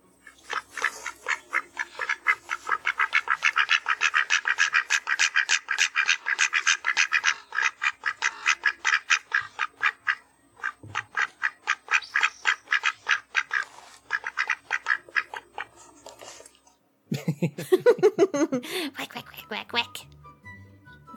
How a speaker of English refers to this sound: I forgot to play this earlier. This is two ducks having a conversation.